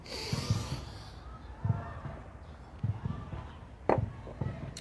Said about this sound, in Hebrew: יש כאן סירות כאלה, הם משוטים ומתופפים.